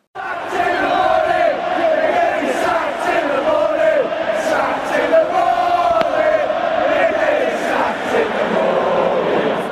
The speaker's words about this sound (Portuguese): Eu estava um pouquinho longe da torcida do Newcastle, mas mesmo assim consegui gravar a torcida cantando isso. Vamos ouvir um pouquinho.